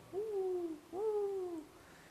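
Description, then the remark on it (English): Doves far away in terebinth trees coo mournfully: two low, soft hooting notes, each gently falling in pitch, separated by a brief pause against a quiet outdoor background with no one speaking. “So, you know, a dove, when you, you let's say you're in the bushveld camping and far away in the thorn trees, now in this case, the terebinth trees, you hear the doves moaning.”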